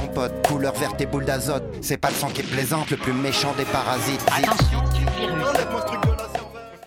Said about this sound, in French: On dirait un coup de tonnerre, mais en réalité, il s'agit d'un bruit d'explosion qu'on trouve dans le jeu culte GoldenEye sur Nintendo 64.